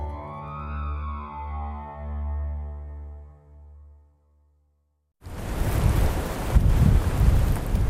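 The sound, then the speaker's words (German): Icy wind rushes and roars loudly through holm oak treetops and over a frosty truffle field near the town of Uzès in southeastern France, a dense, gusting hiss that starts suddenly after a short silence, following a sustained humming tone that fades out. “Eisiger Wind fegt durch die Kronen von Steineichen und über ein Trüffelfeld im Südosten Frankreichs in der Nähe des Städtchens Uzès.”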